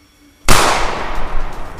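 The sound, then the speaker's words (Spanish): A single loud gunshot goes off abruptly after a brief quiet moment, its sharp crack trailing into a long, echoing decay. No one speaks. “Pegas el balazo y le das al perro y el perro lo único que hace un...”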